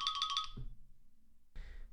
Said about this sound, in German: jetzt hat gerade übrigens der Timer geklingelt.